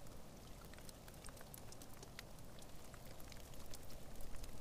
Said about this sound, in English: And so you get this cave like drip sound and then this super mellow mossy rain sound that comes out there. And it's just totally different than any other kind of rain I'd recorded before.